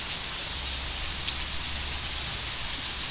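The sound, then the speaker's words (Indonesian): Heavy rain pours steadily, a dense, continuous hiss of drops drumming on surfaces with a low rumble underneath, loud, with no voices. “ininya nih hujan besar banget kan”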